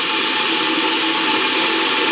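An electric kettle heats water with a steady, loud rushing roar and a faint hum underneath, holding even and unbroken throughout with no voices present.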